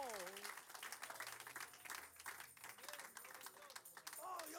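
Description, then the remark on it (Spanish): A crowd claps steadily for Jesus Christ throughout, a dense wash of applause, with voices rising over it at times and a louder burst near the end. “Firmado y sellado y garantizado y aprobado con cada gota de la sangre que Jesucristo derramó en la cruz por ti, por mí, para que estemos aquí aplaudiéndole y oyendo esta palabra que está viva.”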